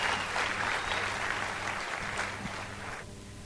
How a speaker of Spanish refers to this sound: Un aplauso a sus líderes, un fuerte, fuerte, fuerte aplauso.